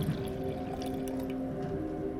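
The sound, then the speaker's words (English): Scotch being poured into a glass at a bar: a steady trickle of liquid filling the glass for about two seconds, with no voices. “He invites me to the bar and pours me”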